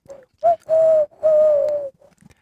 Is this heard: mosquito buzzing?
no